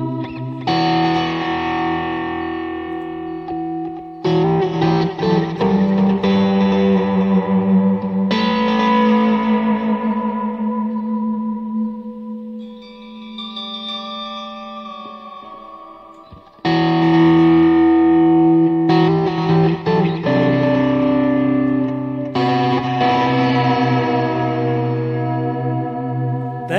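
An electric guitar plays through heavy distortion, strummed chords ringing with sustained, buzzing tone, a quieter echoing passage in the middle, then loud crunchy chords returning.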